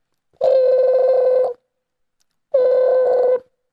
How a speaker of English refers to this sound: And he dialed his parents' house. And finally, it rang.